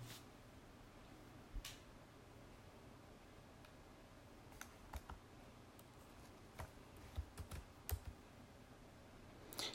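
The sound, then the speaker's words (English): Irregular bursts of laptop keyboard clicks, sharp and dry, with short pauses between clusters of keystrokes over a low background hum; no one speaks. “I don't like working off a laptop, man. I want like a keyboard, monitors.”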